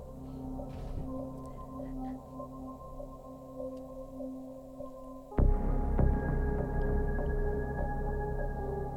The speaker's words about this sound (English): As I knock everything down. I think that's getting picked up on the mic.